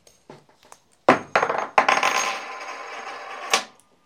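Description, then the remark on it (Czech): A coin with an eagle on it is flipped and lands with a sharp metallic clink, bouncing a few times before a bright, ringing rattle as it spins and settles, then one final tap. No talking. “Vezmu minci a na té minci je orel.”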